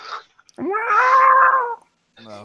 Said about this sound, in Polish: a za oknem rżną się koty